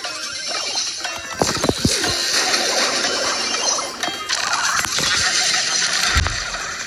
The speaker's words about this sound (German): Wir haben verloren, wie sich der Ton anhört.